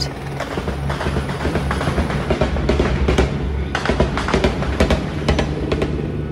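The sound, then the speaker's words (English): Repeated sharp bursts of gunfire from a helicopter crackle over its constant low, droning engine, the shots coming in uneven clusters and fairly loud throughout, with no voices. The helicopter is firing at Islamist militants besieging a hotel; recorded on a phone. “And as it gets closer, it starts to shoot.”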